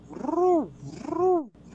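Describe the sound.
A voice imitates a pigeon's coo with two drawn-out, moderately loud, mid-pitched hooting notes, each swelling and then sliding down, followed by a brief pause.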